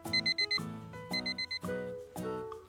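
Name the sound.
alarm clock ringing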